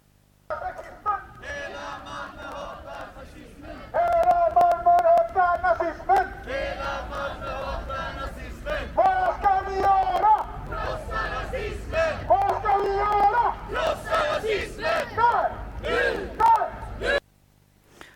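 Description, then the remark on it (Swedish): A crowd of protest marchers, stopped at about Folkets park, chants slogans in loud rhythmic bursts, the shouted phrases repeating with short pauses between them, sustained for about seventeen seconds before stopping abruptly. “Här kommer lite mer eh, slagord där vi stannade till ungefär vid eh, Folkets park.”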